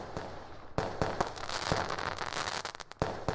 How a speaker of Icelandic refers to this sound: Þetta verður síðasti þátturinn á þessu ári og því við eigandi að kveðja á þann hátt sem við þekkjum best með flugaldum.